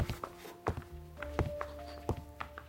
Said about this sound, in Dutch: Dan hoort hij voetstappen.